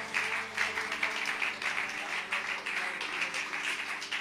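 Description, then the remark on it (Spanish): An audience applauds God in worship, a dense, steady wash of many hands clapping that holds at an even loudness throughout, with a low sustained musical drone underneath. “No sé si alguien puede aplaudirlo a Él con el alma y abrir sus labios.”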